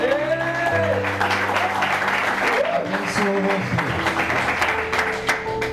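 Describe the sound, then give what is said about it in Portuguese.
A crowd applauds in honour of the speaker's wife, steadily and loudly for several seconds, a dense wash of clapping, with scattered voices calling and cheering over it. “Quero também, é, deixa eu me lembrar aqui, dar um aplauso para a minha linda e maravilhosa esposa, porque ela também.”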